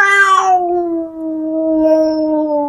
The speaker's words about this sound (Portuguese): Tentei acalmá-la, quando do nada um gato marrom e peludinho passou na nossa frente. Ele estava andando normalmente, até que olhou para minha amiga e, mantendo um olhar fixo e assustador nela, soltou um miado alto e longo.